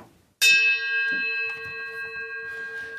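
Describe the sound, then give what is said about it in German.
A single bell is struck once, ringing out with a sharp attack and then sustaining a clear, shimmering tone that slowly fades, with faint background rustling underneath. “Ich äh, drehe mein Haupt und läute die Glocke.”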